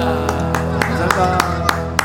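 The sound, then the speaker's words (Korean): Steady, rhythmic hand clapping by the radio producer, writer and engineer in the studio after a live song, about eight sharp claps at an even beat, heard over a sustained, humming musical tone that continues underneath. “우리 지금 PD 작가 엔지니어 지금 박수 막 치고 있어요.”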